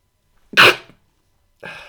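A single sharp, loud sneeze bursts out, with a quick inhale leading into it, followed by a pause and then a brief breathy rustle.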